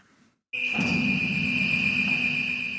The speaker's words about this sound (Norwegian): Alarmen forteller at ubåtporten går opp i det iskalde vannet, inn til det som en gang var den topphemmelige marinebasen Olavsvern.